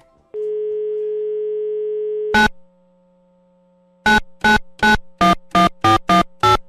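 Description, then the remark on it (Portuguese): A steady dial tone hums for about two seconds, then after a pause a quick series of about eight keypad beeps as a phone number is dialed to place a prank call. No one speaks. “Deixa eu ver se ele me atende.”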